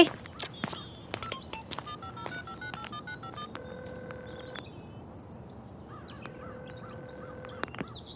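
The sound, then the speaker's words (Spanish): A rapid series of short telephone keypad tones, followed by two long, steady ringback tones with a pause between them, heard quietly with no talking. “Déjame llamarle a Rodrigo y ver si quiere venir”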